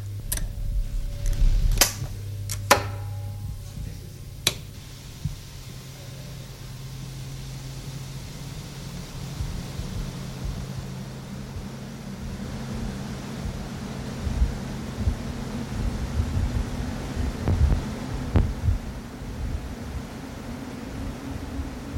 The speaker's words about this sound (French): contact et puis progressivement euh, augmenter l'intensité pour, euh, pour mettre en route le ventilateur qui, qui pèse très lourd et qui a beaucoup d'inertie. Par conséquent, on ne peut pas le faire tourner instantanément à la vitesse euh, optimale.